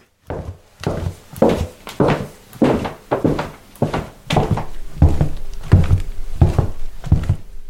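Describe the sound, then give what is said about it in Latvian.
A steady series of about a dozen heavy, thudding footsteps at an even walking pace, each a dull knock on a hard surface, with no talking. “Staigātājs tur gāja kaut kāds.”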